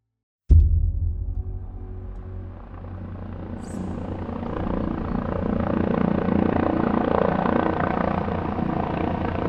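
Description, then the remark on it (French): A helicopter carrying Franco's coffin flies during his exhumation in Spain in autumn 2019, its deep rotor thump and engine roar starting abruptly and staying loud and steady throughout, with no voices. “Le tombeau de Franco dans un hélicoptère.”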